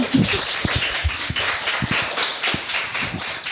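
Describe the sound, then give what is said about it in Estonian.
An audience at a live talk event applauds steadily at the close of the day's conversations, applauding itself. Many hands clap in a dense, continuous patter with a few sharper claps standing out. No one speaks over it. “see aplaus on teile. aitäh, iseendale tehke aplaus.”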